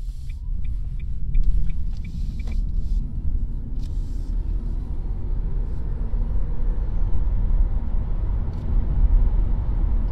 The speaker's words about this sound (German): Okay. Also man hört schon ein Geräusch, ne? aber das scheint dann auch der Motor zu sein, ja, ja. den wir hören.